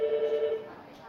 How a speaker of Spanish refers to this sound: Suena el teléfono en el paritorio.